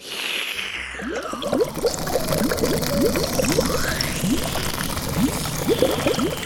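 Liquid is slurped up through a hose in a steady rush, with rapid rhythmic gurgles and bubbly pulses and a whistling tone that sweeps down and back up, as Franny, a green cartoon creature, sucks about 50 gallons of a fizzy lake through her elephant-like nose hose.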